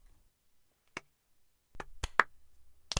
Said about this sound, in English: I hit my microphone real loud.